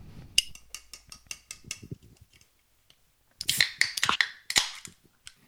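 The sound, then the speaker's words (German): A drink can opened loudly: a sharp crack, a run of small metallic clicks, then a strong hissing fizz with another snap, and no voices. “Alter, wie kann man denn so laut eine Dose auf.”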